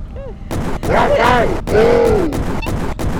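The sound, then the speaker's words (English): Several loud cannon-like blasts go off in quick succession in a video game, sharp booming bursts layered over busy game sound effects and a rising and falling vocal-like tone. “I dodged the cannon though!”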